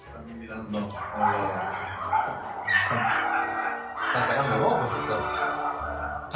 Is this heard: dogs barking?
yes